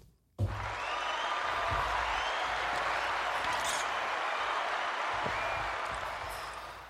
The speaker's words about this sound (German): Yes, ein eigener Applaus. Wie hört sich das an?